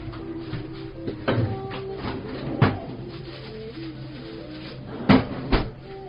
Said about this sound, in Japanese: まず、もちろんゴーヤですね。ゴーヤを冷蔵庫から取り出します。